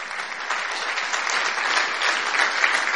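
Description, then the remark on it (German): A church crowd in Nuremberg applauds steadily to welcome a guest preacher, a dense wash of many hands clapping at even volume throughout, with no voices rising above it. “Und ich bitte euch mal, dass wir mal mit einem herzlichen Applaus hier empfangen bei uns in Nürnberg.”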